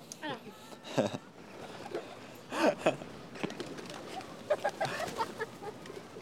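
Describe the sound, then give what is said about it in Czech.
Pigeons being fed a bread roll coo and flutter in scattered short bursts amid outdoor bustle, with faint voices in the background. “Teď zrovna jsme nakrmili naším pokusným rohlíkem všechny holuby.”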